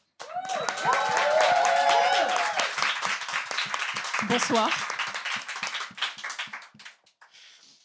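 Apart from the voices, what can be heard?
audience applause and clapping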